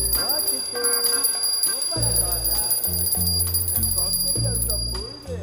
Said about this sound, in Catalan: I en aquell moment ha sonat la campaneta. El senyal d'alerta,